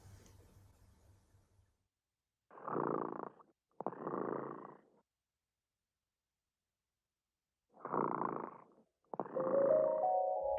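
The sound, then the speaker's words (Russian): The cat Dremota purrs in four rumbling phrases, two pairs separated by a long quiet pause. There's no talking, and a faint tone slips in at the very end. “Кот Ремота сладко спит.”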